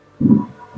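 A deep, muffled drum thump booms outside, followed by the start of another beat: Ramadan pre-dawn sahur wake-up noise. No one speaks.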